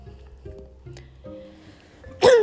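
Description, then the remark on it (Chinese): Low, rough throat-clearing grunts come first, followed by one sudden, loud sneeze: a sharp, hissy burst with a brief voiced tone at the very end. No one speaks. “倒是不好意思，我就是卡痰，这一集卡痰又打喷嚏，就是超级真实。”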